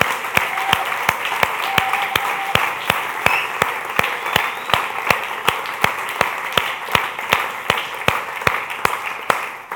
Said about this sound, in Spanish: Dele un aplauso, Señor, por favor. alégrese, denle otro aplauso, alégrese grandemente.